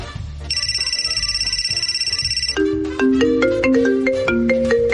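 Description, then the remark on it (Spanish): A mobile phone ringtone plays loudly: first a rapid, buzzing high-pitched trill, then a bright melodic tune of stepped electronic notes, with faint background noise underneath. “Este sonido”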